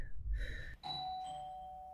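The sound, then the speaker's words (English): A doorbell chimes two notes, ding then dong, with the second tone ringing on and slowly fading. A low background rumble sits underneath, and no one speaks. “who'd be at the door this time of day?”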